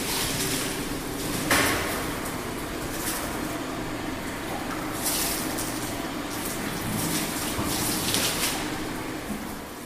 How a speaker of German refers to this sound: Also nochmal eine Reinigung nochmal mit Wasser, also das Desinfektionsmittel, das in dem Bottich drin war, wird jetzt mit Wasser ausgespritzt.